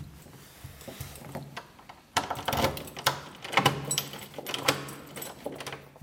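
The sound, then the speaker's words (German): A key rattles and turns several times in the lock of an apartment door to make sure the lock bolt is engaged, a series of metallic clicks and scrapes growing louder after a quieter start, with no one speaking. “Ja, ich habe jetzt halt mehrfach den Schlüssel umgedreht, dass wirklich auch der Schließbolzen drinnen ist.”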